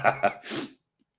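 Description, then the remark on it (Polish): Two short voiced catches of breath build up to a single breathy, explosive sneeze, followed by silence. “Normalnie yy, taki apel, uwaga, będę kichał.”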